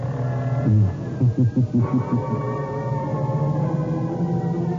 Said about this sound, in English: Just a reminder of our rendezvous next week. Where are we going? Through the creaking door